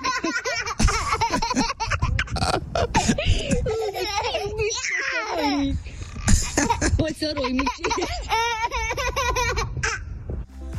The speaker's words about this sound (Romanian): Mamă, deci zici că e sunet din ăsta de pe, uh, cum îi zice, de pe platformele astea de trebuie să-l cumperi, știi? Mm-hmm. Un sunet de bebeluș autentic. Da, da, da, și este un uh, clip de la, un ascult, de la o ascultătoare.